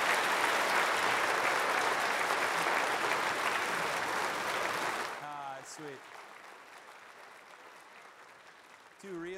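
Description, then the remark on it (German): Dense applause from a church audience for two men fills the first five seconds, loud and steady, then cuts off abruptly; afterward a man's voice speaks over faint background noise. “Geben Sie ihnen einen Applaus.”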